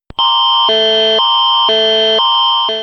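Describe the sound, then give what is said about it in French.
An emergency alert blares on a father's mobile phone during a storm with very heavy rain and lightning: a loud, harsh two-tone signal that alternates pitch about twice a second without pause after a brief click at the start. No one speaks. “Et d'un coup, il y a eu l'alerte beurre sur le téléphone de mon père.”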